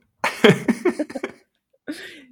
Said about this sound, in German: wirklich der Podcast-Husten, weil sonst hustet der nie. Auch wenn er, keine Ahnung, wenn er normal spricht, hustet der nicht. Aber sobald dann irgendwie auf Recording gedrückt ist, die ganze. ja. Ist, ich glaube, es ist die Anspannung.